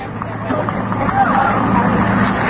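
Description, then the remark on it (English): A steady, low engine drone hums inside a slowly moving bus, with constant rumbling road noise and faint murmuring voices in the background. “The bus moves so slow.”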